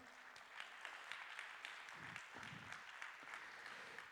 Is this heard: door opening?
no